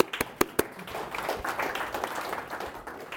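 An audience applauds a prize winner: a few sharp, distinct claps, then a steady, moderately loud patter of many hands clapping for a few seconds.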